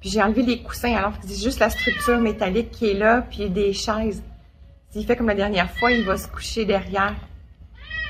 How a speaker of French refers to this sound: Et le bruit que vous entendez, c'est un miaulement, c'est ses chocs. réagissent. C'est pas, pas, le bruit de l'ours.